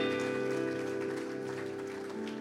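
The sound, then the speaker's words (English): The Grace Church audience gives a morning hand clap of praise to the Lord, a dense, continuous wash of hands over sustained organ-like chords that hold throughout, with no one speaking. “Let's just give that hand clap of praise to the Lord this morning and enter into his gates with thanksgiving.”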